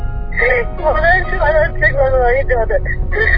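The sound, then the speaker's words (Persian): A person cries and sobs in a wavering, strained voice, sounding muffled and narrow as if over a phone line, with a steady low rumble of background noise throughout. “الان فعلا گریه میکنی من نمیفهمم چی میگی”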